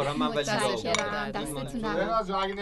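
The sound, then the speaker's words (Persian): Glasses clink a few times in quick, light taps as glasses of sharbat, cucumber sekanjabin, are served and set down, partly buried under steady conversation between people. “شربت من برای هر دوتون آوردم”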